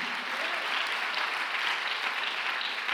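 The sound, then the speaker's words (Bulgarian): An audience applauds steadily, a dense wash of many hands clapping at once with an even, sustained loudness and no pauses or voices breaking through. “О, ако ръкопляскаш, ръкопляскай, като че ти си част от пробуждане.”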